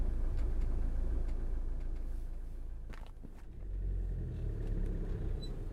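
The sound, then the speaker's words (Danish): A car engine idles in stalled traffic in Odense with a steady low rumble, continuous, with a slight swell in the middle and faint scuffing or shuffling sounds on top; no one speaks. “Ah, nu er trafikken også gået helt i stå herinde i Odense, synes jeg godt nok.”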